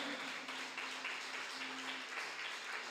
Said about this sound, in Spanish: Ese aplauso es para Dios. Para ti, Señor.